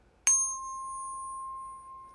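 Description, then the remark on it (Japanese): A single metallic strike sets off a clear, pure ringing tone that sustains evenly for about two seconds, close and moderately loud, with no voices. “1056Hz の響き。”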